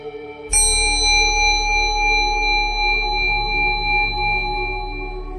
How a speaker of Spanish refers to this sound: Cuando escuches la campana, vas a abrir los ojos lentamente.